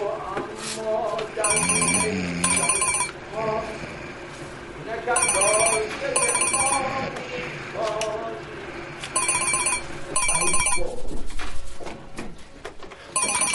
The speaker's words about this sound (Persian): بابا پشت تلفن جواب بده